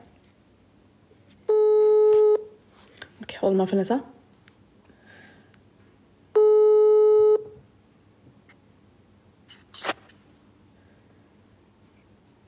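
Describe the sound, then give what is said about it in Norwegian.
A phone ringing tone heard over a speakerphone: two steady, buzzy one-second tones about five seconds apart, with a brief muffled voice and some rustling in the gap between them. “Da ringer vi.”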